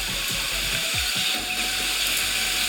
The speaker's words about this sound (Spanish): Ahí tenemos los rayos, la lluvia. Le pueden subir el volumen. Ahí se subía la, lluvia y le bajé a los rayos. Por extraño que parezca en la lluvia, podemos escuchar pajaritos.